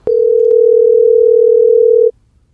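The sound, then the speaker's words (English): A steady telephone dial tone hums loud for about two seconds while calling a friend, a single unbroken pitch that starts with a click and cuts off abruptly, with no voices. “All right, let's get uh, my buddy on the phone here and talk about the uh, the dreaded coronavirus.”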